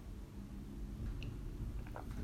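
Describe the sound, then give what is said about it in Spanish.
Quiet mouth sounds of someone drinking water: a few soft wet sips and gulps over a low background rumble, with no talking. “Bueno, tomo agua.”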